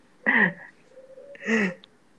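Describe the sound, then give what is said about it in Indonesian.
A zebra dove calls in two short, burry cooing bursts about a second apart, joined by a faint, thin sustained note, against a quiet background. “ada suara Ya, Pak. Perkutut kayak.”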